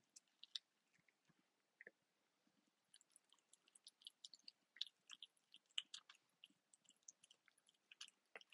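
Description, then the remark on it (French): A cat eating its wet food (pâtée), heard up close: quick, wet little clicks and crunches of its mouth in irregular bursts, soft and quiet, with no talking. “Je vais m'approcher de lui pour essayer de faire entendre ces petits bruits de, bouche de chat.”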